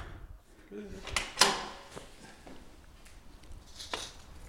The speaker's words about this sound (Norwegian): åpner en veldig stor, nydelig dør. Ja, den er fin sommeren. Ja. Altså, du er sånn ja. ute inne når den er oppe.